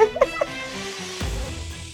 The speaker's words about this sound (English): I'm in the chicken coop hanging out with the chickens and the ducks. I feel like you can hear them. They are so funny.